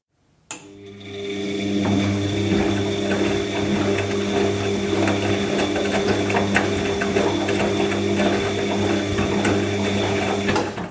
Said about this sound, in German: Dieses Geräusch wurde dir präsentiert von Waschmaschine. So wasch, so Maschine. Hm, Waschmaschine.